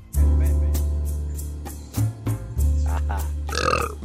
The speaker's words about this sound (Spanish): no, hombre, todavía no comen, ya están eructando.